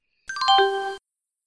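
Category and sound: signal or alarm, phone notification ding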